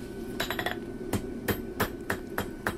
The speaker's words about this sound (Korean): 불카누스의 망치질에 가위, 호미, 괭이가 모양을 갖추고 쇳덩이가 도구로 바뀌는데 채 2분이 걸리지 않습니다.